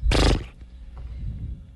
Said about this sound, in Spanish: mi objetivo es saber qué, qué, zapatos ponerme y el caballo en ese momento, eh, te digo yo, resopla.